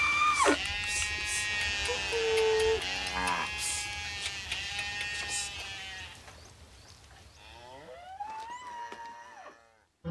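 Cows being quickly herded home, with several loud, drawn-out wavering calls that overlap, then a fainter, rising call near the end over a steady low rumble.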